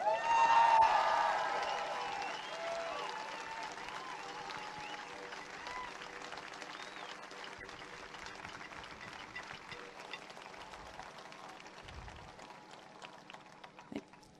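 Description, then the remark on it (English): A crowd at a protest rally in Melbourne bursts into sustained applause acknowledging the work of the Aboriginal resistance, loudest in the first second or two and then settling into steady, dense clapping that gradually thins toward the end, with some scattered voices mixed in. “So, can we please, therefore, acknowledge the work of the um, warriors of the Aboriginal resistance with a big round of applause?”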